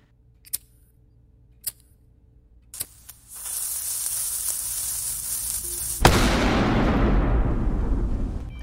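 A few sharp clicks, then a long firework fuse starts sizzling with a steady hiss and burns down very quickly before a sudden loud burst erupts and keeps roaring and crackling to the end. No one speaks.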